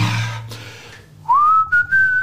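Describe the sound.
After a second of low rumbling noise, someone at home whistles a short tune: a note sliding upward, then a few sustained, slightly higher notes with brief breaks, fairly loud and alone.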